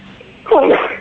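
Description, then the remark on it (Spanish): A single sharp sneeze bursts out after a moment of near silence, loud, with a breathy, noisy release that trails off briefly. “Salud.”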